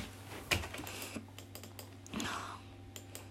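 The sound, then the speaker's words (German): Computer keyboard keys pressed in a quick, irregular series of sharp clicks, fairly quiet, with a louder clack near the start and a steady low hum underneath. “So, Tasten gedrückt.”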